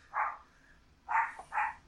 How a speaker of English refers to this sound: is my dog giving his opinions on Slumber Party Massacre.